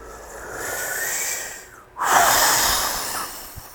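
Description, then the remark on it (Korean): A voice imitates a wolf forcefully blowing to blow down a little pig's house in a children's story, two long breathy whooshes of air, the first steady, then a brief pause before a louder, harder gust that tails off slowly. “늑대가 입김을”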